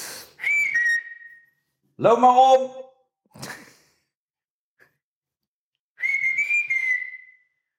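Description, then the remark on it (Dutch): A dog, one of several dogs, whines in several high-pitched, drawn-out cries, one dropping in pitch, separated by short pauses. The whines are clear, and someone speaks a brief phrase. “Een van de andere honden. Ik weet niet of jullie het horen, maar dan weten jullie dat.”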